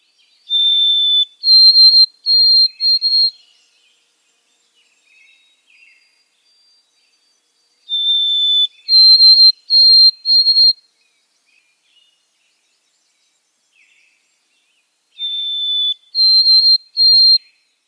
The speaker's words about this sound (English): Anyway, here is the song of the white throated sparrow.